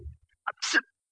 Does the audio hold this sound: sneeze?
yes